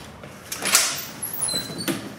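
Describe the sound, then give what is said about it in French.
A door being opened or shut, with a sharp clack followed by a couple of softer bumps and rattles, with no one talking. “Euh, oui, c'est là, mais on peut prendre euh, l'autre porte.”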